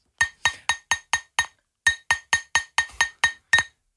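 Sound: glass being struck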